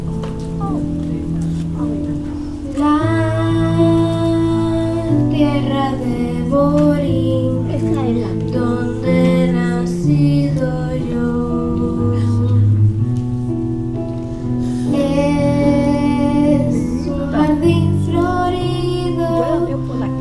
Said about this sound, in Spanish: Escucharemos los himnos de Puerto Rico y Estados Unidos.